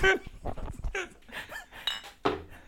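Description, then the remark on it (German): Glasses clink together in a toast, a few bright chimes, mixed with rustling and soft voices. “Prost.”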